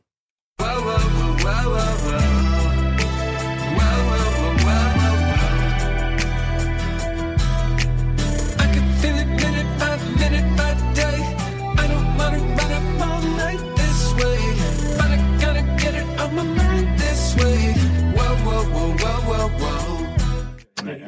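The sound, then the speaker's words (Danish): A loud hip-hop track from a new album plays throughout with a heavy, punchy bass and a steady groove whose clipped short-long Scotch snap rhythmic figures give it a snapping, syncopated feel. No one speaks over it. “Det er den her hiphop-rytme, I skal prøve at lægge mærke til.”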